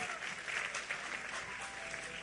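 A steady burst of applause, with many hands clapping in a dense, even wash of sound that holds at a fairly constant level for a couple of seconds.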